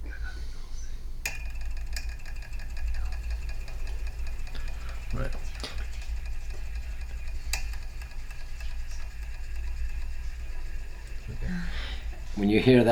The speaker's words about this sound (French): Quand vous entendez ce son dans un moteur, vous savez que ce moteur a probablement été fabriqué avant 1912.